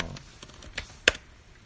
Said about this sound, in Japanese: あ、タイピングしてる。タイピングの音っていいよね。カチャカチャって音。